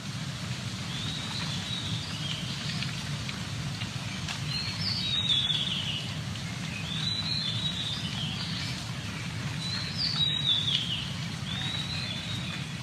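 Birdsong from a balcony: short bursts of bright, high chirping recur three times, every few seconds, over a steady low background rumble. No one speaks.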